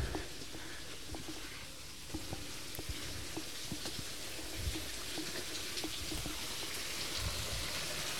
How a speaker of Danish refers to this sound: Nå, nu kommer der lige lidt, øh, lidt vandlyde her.